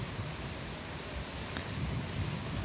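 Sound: rain falling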